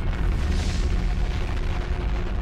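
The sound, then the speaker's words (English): A volcanic eruption's deep, continuous rumbling boom, loud and steady throughout, with heavy low roar and a hissing rush layered above, no voices present. “First, the ground swelled up with tremendous howling, and suddenly a cry shattered it into pieces and is the earth's gut like an animal tearing apart its prey.”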